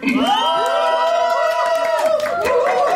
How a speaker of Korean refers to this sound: 큰 박수 부탁드릴게요.